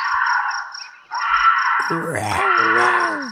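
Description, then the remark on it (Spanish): A bobcat's raspy, high-pitched scream sounds, breaking off briefly before resuming as a long, wavering, shrill cry with strained, moaning tones toward the end. “Ese es un gato montés gritando.”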